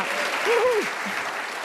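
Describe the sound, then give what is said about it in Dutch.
A crowd applauds with dense, steady clapping throughout, greeting an honourable mention for Van Straten Medical, and a single voice briefly cheers over it near the start. “Groot applaus.”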